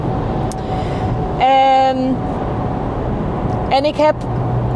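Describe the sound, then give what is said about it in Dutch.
Steady road rumble and engine drone from inside a moving car as it passes a large truck on the highway, with a person speaking briefly over the continuous traffic noise. “En oh, ik moet even langs een vrachtwagen.”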